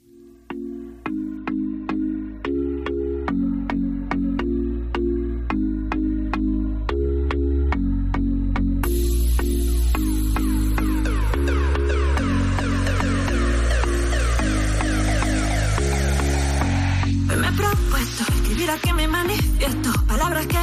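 A song plays on the radio at steady volume, opening with rhythmic bass and keyboard chords before a fuller, brighter arrangement builds in around the midpoint and continues to the end, with no talking over it.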